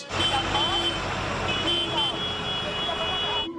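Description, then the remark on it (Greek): Farm tractors from North Euboea idle and rumble as they line up in front of the Greek Parliament in central Athens during a farmers' protest, shortly before 2 pm. A steady electronic reversing beep sounds over the heavy engine noise, continuous and loud for several seconds. “Λίγα λεπτά πριν από τι 2 το μεσημέρι, τα πρώτα τρακτέρ από τη Βόρεια Εύβοια έφτασαν εδώ στην καρδιά τη Αθήνα και παρατάχθηκαν μπροστά από το Ελληνικό Κοινοβούλιο.”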